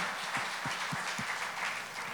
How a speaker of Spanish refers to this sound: Le puede dar un aplauso al Rey Jesús por ello.